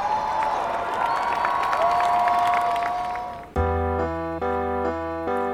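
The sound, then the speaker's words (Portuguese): A crowd watching on site claps and cheers in a dense, steady roar for about three seconds as a SWAT team overpowers Yolanda after she leaves a car, with a sustained whistle-like tone above it, then it cuts abruptly into loud electronic musical tones. “Mal colocou os pés fora da viatura, foi dominada por uma equipa da SWAT, sob os aplausos da multidão que assistia a tudo no local.”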